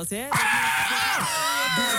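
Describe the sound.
A voice imitates a pheasant caught in a storm: a loud, strained, high-pitched squawking cry that wavers and slides for about two seconds, with a short breathy burst before it.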